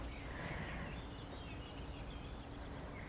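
Faint birds chirp a few times over a steady outdoor hiss of wind or background noise, outdoors among trees in autumn, with no one speaking.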